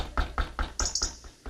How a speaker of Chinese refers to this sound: 嗯，是谁在敲门呢？